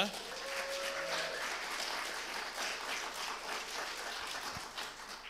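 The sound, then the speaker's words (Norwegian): Sustained audience applause for a worship music team, a dense steady wash of many hands clapping at even loudness that tapers slightly near the end, with no one speaking over it. “Skal vi ikke gi dem en skikkelig applaus?”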